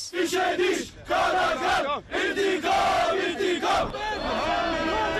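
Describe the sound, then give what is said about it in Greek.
A large crowd shouts and yells continuously, many voices rising and falling in loud overlapping waves of angry chanting and cries, with brief dips before surging again, as protesters clash with police near the American embassy. “Ξέσπου συγκρούσει μεταξύ αστυνομία και διαδηλωτών κοντά στην Αμερικανική πρεσβεία.”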